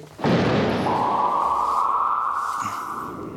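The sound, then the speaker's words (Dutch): A short shame jingle sound effect: a sudden loud, booming blast that settles into a long, steady droning tone, holding for about three seconds with no one talking. “Doe het schandblokje maar even dan.”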